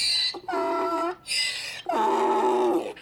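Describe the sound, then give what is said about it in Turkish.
A man who has gone mad mimics a donkey's bray, loud, switching between a high wheezy inhale and a lower throaty honk for about two full cycles, with no other talking. “Hayvanları pek sevmezdi ama delirince nedense eşek olmayı seçmiş.”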